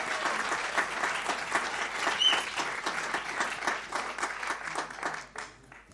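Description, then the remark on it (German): An audience applauds steadily for the young generation given the chance to stand at the front, a dense patter of many hands clapping at once that holds for several seconds before thinning out and fading at the end. “Ja, einen Applaus mal für die alle.”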